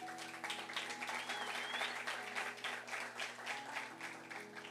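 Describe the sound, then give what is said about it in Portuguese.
An audience applauds the Lord Jesus in a steady, dense wash of clapping lasting several seconds, with faint sustained tones humming underneath. “E dou um aplauso ao Senhor Jesus.”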